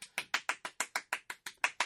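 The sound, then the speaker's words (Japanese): A hand fan (uchiwa) is slapped like clapping hands to celebrate the first anniversary of Time Machine Club (タイムマシン部), about eleven crisp, papery smacks in a quick, steady rhythm, each one equally loud, with no voices. “拍手をやめてくれ。うちわで拍手をしてどうなる”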